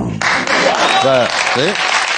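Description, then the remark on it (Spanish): A crowd bursts into steady, loud applause that fills the whole clip, with a couple of voices shouting or cheering briefly over the clapping, applauding the resignation of the heads of primary care and hospitals in Díaz Ayuso's Madrid government. “Bueno, Estamos aplaudiendo una dimisión, ¿eh?”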